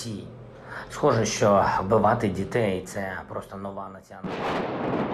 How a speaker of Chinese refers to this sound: 同一时间，乌克兰东部城市哈尔科夫也是炮声隆隆。州长表示，俄军炮轰平民设施，光二十三号一整天就被轰击至少五十六次。